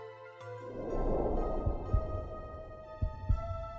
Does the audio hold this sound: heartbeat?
yes